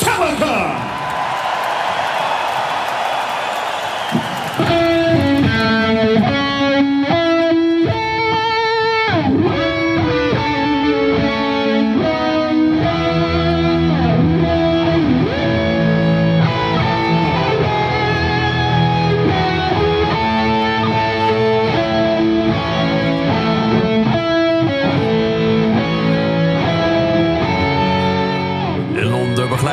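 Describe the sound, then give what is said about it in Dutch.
A crowd roars and cheers for a few seconds, then a loud, distorted electric guitar plays the Star-Spangled Banner live, with long sustained notes and faint crowd noise underneath; performed by two guitarists in San Francisco. “Here to perform the Star Spangled Banner from day one.”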